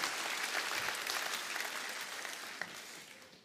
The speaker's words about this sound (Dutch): Doe eens een applaus, dat is toch heerlijk? Dat is toch prachtig?